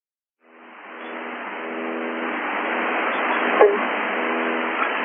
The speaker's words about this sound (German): Und heute weiß man natürlich, und damals wusste man es auch schon, dass Teile dieser Zahlensender durchaus ähm, ja, Spionage-Mitteilungen der DDR gewesen sind. Und wir können da nochmal ganz kurz reinhören, wie so ein Zahlensender klingt.